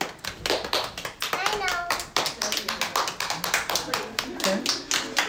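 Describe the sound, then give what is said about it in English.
A crowd claps in a dense, steady patter of many hands, with scattered cheers and voices rising through the applause, which keeps going for several seconds at a fairly loud level, as people answer by applause how many like to make their own costumes. “So, uh, by round of applause or just by noise, how many people like to make their own costumes?”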